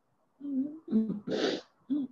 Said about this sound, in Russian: А рыдаешь на предмет чего сейчас? Вот скажи мне.